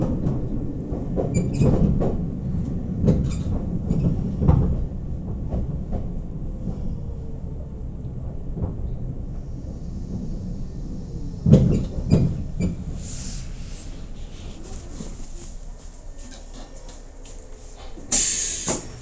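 Wheels of a Nagoya Railroad (Meitetsu) Toyota Line train in Japan, approaching Hiratobashi station, clatter over rail joints in loud paired clunks above a steady low rumble, with bursts of clacking early on and again midway, then a smoother hum toward the end.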